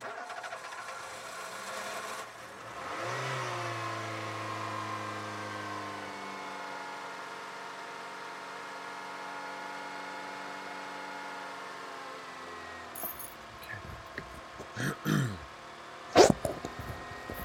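A car engine cranks and catches, revs briefly, then settles into a steady idle hum for several seconds before a few clicks and knocks break in near the end.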